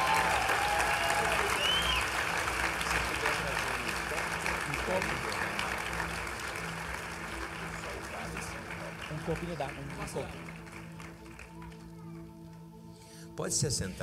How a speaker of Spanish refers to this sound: Aplaudan a Jesús muy fuerte.